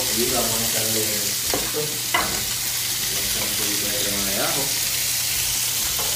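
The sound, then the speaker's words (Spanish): Blanched vegetables sizzle steadily in a hot frying pan, a constant hissing crackle with a few sharper scrapes and clatters as they are stirred, and a faint voice underneath. “Si no canta, significa que todavía el sartén le hace falta que usted, mire, le ponga un poquito más de caliente para que eso grite.”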